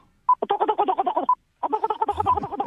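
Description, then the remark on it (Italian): A voice mimics a bucking seahorse underwater: two fairly loud runs of rapid, bubbly warbling pulses separated by a brief pause, the second ending in a low gurgle. “Naso tappato non c'era bisogno, però mi fai per piacere il cavalluccio marino imbizzarrito. Bello, sott'acqua.”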